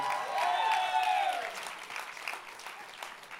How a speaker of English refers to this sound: That's your cue to clap and get really crazy, right?